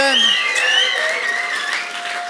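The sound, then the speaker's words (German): An audience applauds steadily for a couple of seconds, a dense wash of clapping with high, sliding whoops or whistles riding on top, fairly loud throughout. “Komm gerne mal denen einen riesen Applaus da aus der 20th äh, Celebration.”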